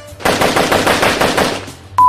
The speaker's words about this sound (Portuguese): São, são quatro pessoas em duas motos. Uma pessoa guiando a moto e outra com a metralhadora atrás, descarregando no carro.